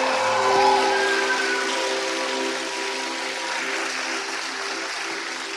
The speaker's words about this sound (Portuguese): Vocês podem dar uma salva de palmas pela vida dela?